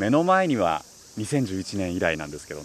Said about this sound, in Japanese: 今僕はセミの鳴き声も賑やかな会津若松の鶴ヶ城公園に来ていて